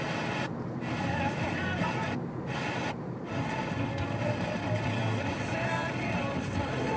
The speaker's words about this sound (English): Like walking in the rain and the snow and the static on 87.9.